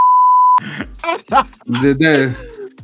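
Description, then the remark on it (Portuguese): A loud, steady high-pitched censor bleep lasts about half a second, then cuts off abruptly as a man starts talking animatedly. “Juro tá por Deus, cara, que eu queria muito não dar bip nisso.”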